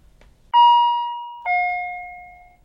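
A patient call chime sounds two loud electronic notes, a higher tone stepping down to a lower one. Each rings with a bright, steady pitch and slowly fades, with no voices over it. It is a patient's call, one of more than twenty from that patient today.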